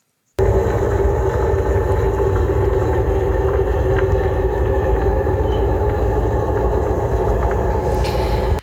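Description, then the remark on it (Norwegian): Steady, loud mechanical rumble of a cable car gondola passing over a house, a continuous low drone with a faint high whine on top, lasting several seconds with no voices. “Skal vi høre hvordan det høres ut når gondolen kjører over huset ditt?”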